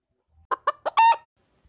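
A rooster crows: three short, sharp notes followed by a longer, drawn-out final call, loud and clear with no talking around it.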